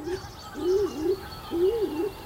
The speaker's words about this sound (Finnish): Tämä on siis uuttukyyhkyn ääni ja Mä oon tästä kyllä varsin lumoutunut. Et tämähän on ihan erilainen kuin sepelkyyhkynää. Joo, ei tästä tule sitä huhu... huhuilu niin. mieleen. Niin. Siis on jännä pumppaava ääni.